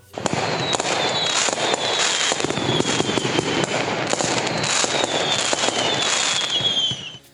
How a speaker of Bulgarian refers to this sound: кьорфишек.